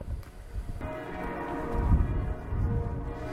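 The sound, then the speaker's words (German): Church bells ring out steadily on a sunny day, their overlapping tones hanging in the air over a low, rumbling background noise, with no voices present. “So, jetzt kann man die Kirchenglocken sehr gut hören.”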